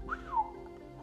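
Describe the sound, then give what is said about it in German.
A single short, sharp whistle through the teeth, done just for fun, that slides up and then drops away, fairly loud, over a low steady background hum. “Karl pfiff durch die Zähne, nur so zum Spaß.”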